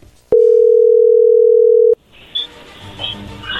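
A telephone dial tone on an outgoing call being placed to a woman: one loud, steady, mid-low hum lasting about a second and a half, cutting off abruptly into faint line hiss and soft clicks.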